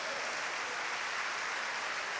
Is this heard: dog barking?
no